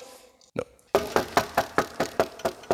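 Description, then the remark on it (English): Steady, repeated knocking on a door: one lone knock, a short pause, then about nine even raps in quick succession, fairly loud, with no voices. “Okay, then where are you going to go knock now? You got no other door you've been sent to.”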